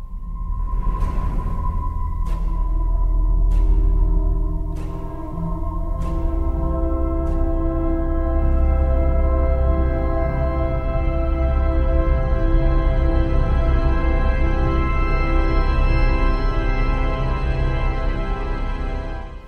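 Slow, atmospheric science-fiction film score: sustained organ-like drones layered into a dense, swelling chord, punctuated early by a few sharp, spaced hits, with no voices throughout.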